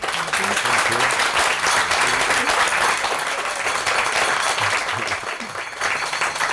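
Sustained applause from an audience thanking two guests for coming, dense and steady clapping for several seconds, with faint voices murmuring underneath.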